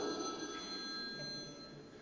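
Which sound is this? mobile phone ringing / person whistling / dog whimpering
mobile phone ringing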